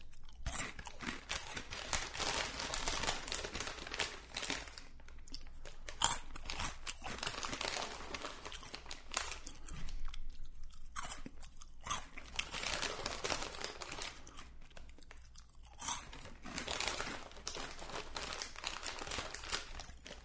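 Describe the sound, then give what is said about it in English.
Loud ASMR crunching and chewing of crisp little snacks, with steady repeated bites and crackly mouth sounds continuing for the whole stretch and only brief pauses between mouthfuls. “Um, you can leave now, but if you want to hear me eat, I'll eat for a couple minutes.”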